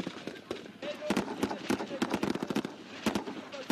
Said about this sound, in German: Die Soldaten schießen sofort zurück. Während des Feuerkampfes werden mehrere Angreifer getötet. Einer der deutschen Fallschirmjäger wird leicht verwundet.